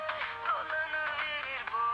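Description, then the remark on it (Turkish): A phone ringtone plays a steady electronic melody of clear, bright tones without pause for the full two seconds, moderately loud, with no one speaking over it. “Nerede o çalıyor canım?”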